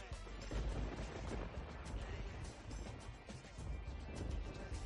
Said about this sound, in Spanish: Uy, como truenos, ¿no? Es que con la música no se oye. Vaya por Dios.